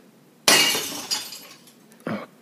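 A sudden loud crash as an old mixer is thrown away, with a burst of shattering glass-like debris that decays over a second, then a second shorter crunching impact shortly after.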